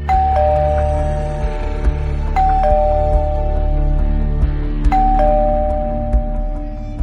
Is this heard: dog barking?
no